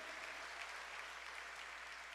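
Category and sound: crowd, audience applauding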